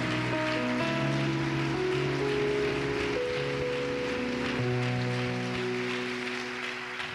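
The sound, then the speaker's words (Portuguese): A crowd at a religious service claps steadily to applaud a man, a dense, even patter of many hands, over sustained keyboard chords that shift pitch every second or so. No one speaks. “Vamos aplaudi-lo como ele merece.”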